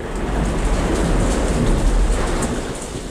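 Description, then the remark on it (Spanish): Heavy rain pours steadily in a dense, continuous hiss, with a deep rumble of thunder rolling underneath throughout; a loud thunderstorm at sea around a ship, with no voices. “Aun cuando la tormenta no cesó, amainaría lo suficiente como para examinar la urna, evidentemente nueva, que permanecía donde la había dejado la ola, sobre la cubierta de proa del Trelawney.”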